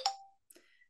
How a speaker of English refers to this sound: sorry excuse my phone for being a complete rudeness to you all